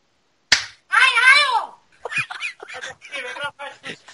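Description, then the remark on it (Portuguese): A single sharp slap on a person's face cracks out, instantly followed by a loud, wavering honk-like yelp, then people start talking rapidly. “Tá então tá bom, vou acordar e dar um tapa na cara dele.”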